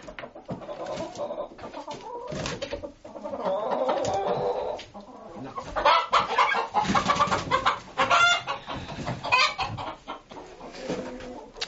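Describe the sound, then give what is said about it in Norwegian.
Bronze turkeys cluck and call repeatedly, with bursts of scuffling and wing flapping in between, growing busier and louder in the second half. No one speaks. “Se på de heter bronsekalkuner, og det kan du se på det der skinnet i fjærdrakta her.”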